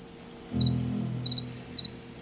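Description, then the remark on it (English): Male crickets give rapid, high-pitched courtship chirps in short repeated bursts over a low steady hum that swells in partway through. “I will hear the courtship chirps, so the males are just saying, like, I'm here, I'm here, and waiting for a female.”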